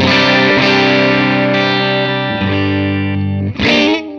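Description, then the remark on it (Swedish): A distorted electric guitar rings out through a tube amplifier fitted with a tube of the kind many put in old Marshall amplifiers for a guitarist's sound. It plays thick, sustained chords with a buzzy, harmonic-rich edge, shifting chords a couple of times, with no talking. “Och det här röret, det är ju det som många vill sätta i sina gamla Marshall för att det ska vara det här äh, …-soundet va?”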